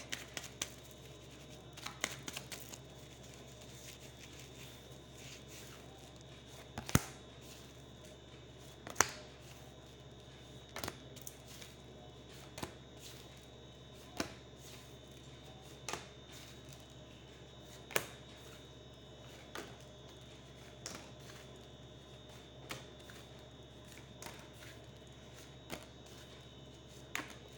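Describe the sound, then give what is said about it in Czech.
A deck of cards being shuffled and handled for a card reading, with soft papery rustling and irregular sharp snaps and taps over a steady low hum. Nobody speaks. “Já už se dívám na vaši fotku, míchám u toho karty a mrkneme spolu, jak se bude barvit to období 2022.”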